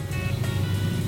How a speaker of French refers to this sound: Euh, là, c'est une moto qui passe, oui, parce que dans un village, mais aussi de la ville.